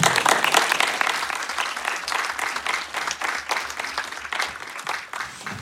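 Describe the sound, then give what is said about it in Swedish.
An audience applauds steadily for several seconds to welcome two guests, a dense wash of many hands clapping at a fairly loud, even level that tapers off slightly toward the end. “En stor applåd!”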